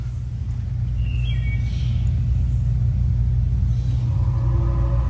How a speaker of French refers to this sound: Là, pour moi, on entend le vent et le, oh, bruit des bois.